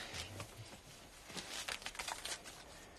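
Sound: rummaging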